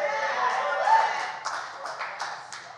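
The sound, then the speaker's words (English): An audience claps together for the gospel, a dense wash of hand claps with sharper irregular claps standing out in the second half, mixed with voices underneath. “We're clapping for the simple gospel.”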